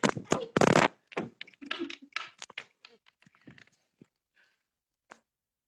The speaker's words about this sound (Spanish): Hubo un problema técnico, se cayó el celular. se nos cayó el teléfono.